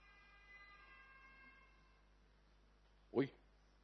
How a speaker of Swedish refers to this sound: det är en brandbil som kommer här det är något automatlarm som har gått så ni behöver inte vara så oroliga den åker med jämna mellanrum förbi här